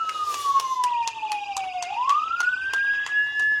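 An ambulance siren wails, its pitch sliding slowly down and then sweeping back up, loud and steady, while rhythmic applause beats along beneath it, clapping to bid farewell to a departing friend.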